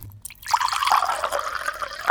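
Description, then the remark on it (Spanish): Water pours steadily into a glass for about two seconds, a bright splashing stream with a rising gurgle as it fills. No one speaks. “¿Tomamos un poquito más de agua?”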